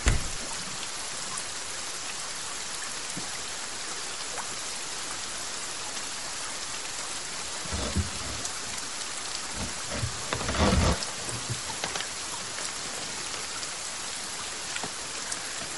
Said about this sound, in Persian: بارون دوست دارم